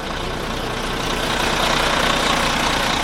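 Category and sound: vehicle, bus engine idling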